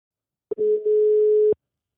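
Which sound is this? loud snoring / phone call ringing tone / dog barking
phone call ringing tone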